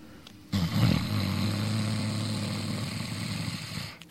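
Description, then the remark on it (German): A single long inhalation made with a deliberate snoring tone during a guided breathing exercise, a rough, rattling rasp held steadily for about three and a half seconds with no talking over it. “Und jetzt atmet ein, indem ihr diesen Schnarchton erzeugt.”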